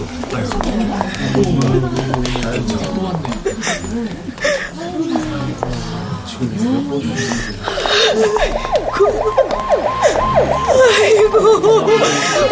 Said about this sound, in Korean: 왔네, 왔어. 아니, 장애 차량이 아니라 구급차에 실려서 화장터로 오네. 호들갑스럽게 비상경보를 울려대며 들어온 구급차였다.